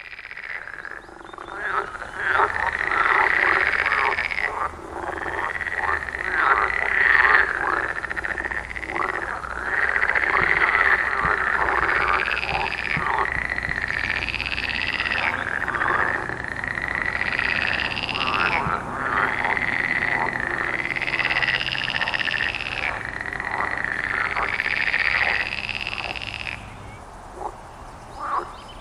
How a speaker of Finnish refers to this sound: Tämä on, tämä on siis Lessonan sammakon ja mölysammakon risteymä. Sekosammakko nimeä käytetään, ruokasammakko taitaa olla virellinen nimi